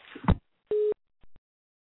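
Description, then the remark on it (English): A short burst of handset clatter as a telephone call is redialed, then a single steady telephone tone like a busy signal, followed by two quick faint clicks. The sounds are clear, with no voices. “We're going to redial.”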